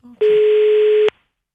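A loud, steady telephone dial tone sounds alone for just under a second as a call is placed, starting and stopping abruptly, with a faint click just before it begins.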